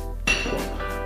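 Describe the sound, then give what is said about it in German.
Glasses clink together in a toast: one bright clink with a short ringing tone, then a softer second touch, over a low steady hum with no talking. “Ich wünsche euch viel Vergnügen, Mutter Matze, und sage Prost.”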